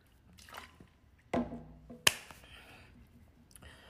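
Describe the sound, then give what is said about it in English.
Someone drinking water: a few short wet sips and swallowing clicks, with one sharp snap-like click partway through and quiet pauses between. No one speaks. “I really needed water, so this was like my water break.”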